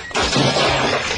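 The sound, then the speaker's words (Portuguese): A sudden loud crash as Robin trips and falls onto the cuckoo clock, with a burst of shattering and clattering that rings on for about a second, no voices. “Veja o que você fez, Robin! Você caiu em cima do nosso cuco!”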